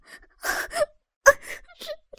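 A woman wails and sobs while begging for mercy as she is whipped, in broken, uneven bursts, her high-pitched moaning cries interrupted by sharp gasping breaths and a few fainter whimpers toward the end.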